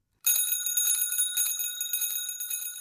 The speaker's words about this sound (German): Das ist die Klingel, die aus China kommt und die benutzen dort fast alle Fahrradfahrer.